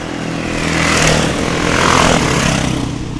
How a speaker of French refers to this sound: Alors, je me demandais ce que ça pouvait être, et j'ai compris, c'est une course d'enduro. Donc voilà, de temps en temps vous pouvez voir passer des motos.